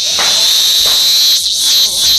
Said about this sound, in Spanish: Es la chicharra que esta mañana a las 6 de la mañana, para la redundancia, nos encontrábamos en el Valle de Toledo y la hemos traído aquí ya maestrada a los micrófonos de Onda Cero.